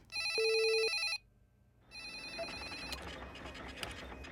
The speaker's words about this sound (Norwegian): Der sitter åtte stykker i beredskap. De tar imot telefoner fra bekymrede familiemedlemmer i Norge og fra nordmenn som melder seg fra Thailand. Telefonene kimer hele tiden.